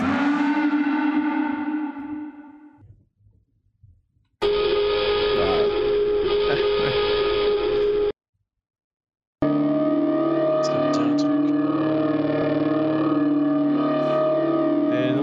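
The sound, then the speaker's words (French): Loud, harmonically rich video game siren sound effect from Half-Life 2, in three sustained sections separated by short gaps: the first fades out slowly, the others cut off sharply. The tone is steady and droning, with no talking. “Mais euh, je crois que la première, la première sirène, on doit l'entendre dans les deux.”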